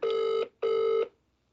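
A phone ringback tone sounds twice, two steady electronic bursts of about half a second each with a short gap, heard through a speakerphone at moderate volume with no voices.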